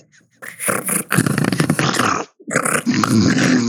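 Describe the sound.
A person imitates a lion's roar, giving two loud, raspy, growling bursts separated by a brief breath, with no talking.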